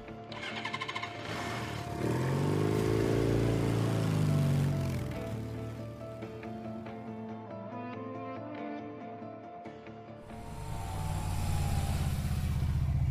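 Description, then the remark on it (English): A motorcycle with a sidecar roars along, its engine revving up and down in loud continuous surges, briefly easing off before throttling hard again. No one speaks. “a motorcycle with a sidecar parked outside the coffee shop.”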